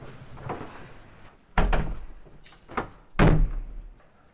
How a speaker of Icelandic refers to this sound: Við skellum í lás á Vélarhúsinu við Reykjanesvita og færum okkur vestur á fyrði.